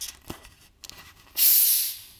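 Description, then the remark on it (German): A bottle is opened with a few soft clicks and handling noises, then a sudden loud, sharp hiss of escaping gas that holds for under a second before fading. “Zisch. So, zischt jetzt auch.”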